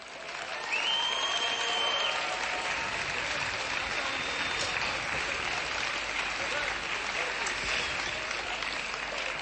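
Sustained applause from a large crowd, steady and dense for the full stretch after a quick swell at the start, with a few faint whistles rising above the clapping.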